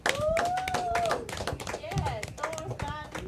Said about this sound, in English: So look here, man. One more time, man, for the newest CPU members. Clap it up, please.